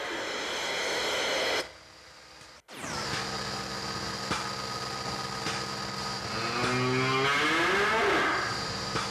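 A cow gives one long, drawn-out moo near the end, rising slightly in pitch, heard over a constant crackly hiss like an old recording.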